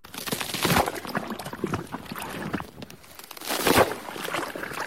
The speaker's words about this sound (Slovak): Áno, je to praskajúci ľad na zamrznutom jazere.